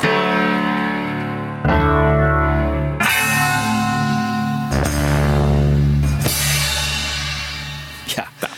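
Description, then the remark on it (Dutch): The final chord of a song is built up in stages from isolated multitrack recordings: piano, a part through a Leslie speaker, a tremolo part, a fuzz part and drums enter one after another, each distorted, wavering layer ringing out loudly before the next joins. “Dat we even horen hoe, hoe die ene klap uit al die eh, verschillende sporen eh, is opgebouwd.”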